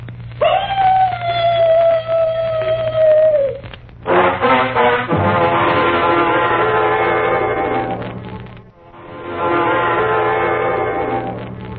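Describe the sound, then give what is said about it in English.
A dog lets out a long, mournful howl that holds a steady high pitch and slowly sags, then breaks into louder, fuller wailing tones that carry on for several more seconds. “First, the mournful dog howl.”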